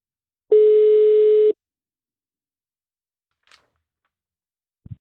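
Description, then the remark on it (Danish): A single steady telephone ringing tone sounds for about a second, loud and clear on the line, on an outgoing call from Radio Loud, followed by silence and a couple of faint clicks. “Men vi skal tale med nogle af dem, der har set det, og nu ringer vi op til den første.”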